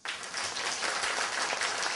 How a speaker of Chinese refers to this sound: 听明白的，掌声告诉我。